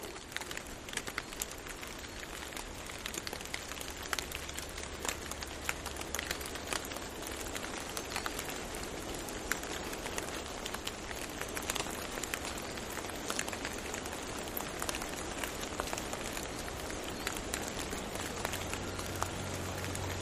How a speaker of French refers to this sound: C'est juste euh, la fonte euh, du saupoudrage de neige qui s'est déposée euh, sur les ramures des sapins.